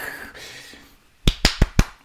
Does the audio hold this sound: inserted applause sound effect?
yes